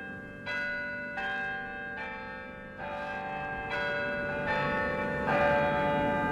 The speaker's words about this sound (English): The historic bells of Albany City Hall return us to Albany Street, a public affairs presentation of Albany Broadcasting.